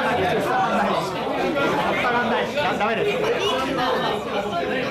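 Loud, continuous crowd chatter fills a busy restaurant, many overlapping voices blending into a steady wash of noise with no pauses throughout.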